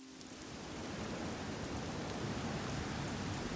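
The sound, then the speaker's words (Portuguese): Steady rain pours down on the Microsoft campus in Redmond, Washington, in May 2003, in a dense, continuous hiss with scattered drop patter, fading in briefly at the start and then holding an even, fairly loud level throughout. No voices. “Enquanto chove, uma frota de ônibus sai da estrada e entra no campus da Microsoft.”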